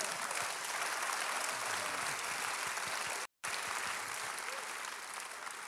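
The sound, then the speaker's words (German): An audience claps steadily, a dense, sustained wash of applause that holds at a fairly even level, broken by one brief dropout of silence partway through. “Ja, lass uns einen Applaus geben.”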